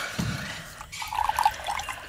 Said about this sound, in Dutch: Ja, zal ik wat voor je inschenken? Water, hè? Gewoon. Oh, doe maar een glasje water. Ja, is goed.